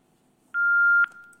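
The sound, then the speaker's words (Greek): A single steady telephone beep sounds for about half a second, clear and fairly loud on a quiet line, with a faint click as it cuts off. “Ωραίο τηλέφωνο αυτό.”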